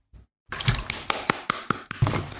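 A hand clap rings out and is followed by a quick, evenly spaced train of sharp, bright echoing taps over a steady hiss, with no talking.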